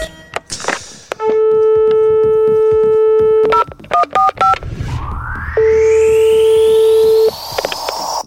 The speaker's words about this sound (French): Ah, c'est un vieux téléphone, ça dit donc.